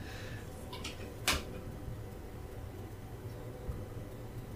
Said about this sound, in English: There's a train.